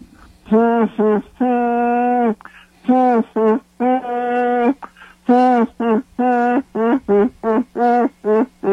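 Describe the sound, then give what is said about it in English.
A single voice hums the Hill Street Blues TV police drama theme tune, moving through a steady melody of short and held notes with brief pauses between phrases. “Hum me a few bars of the Hill Street Blues theme.”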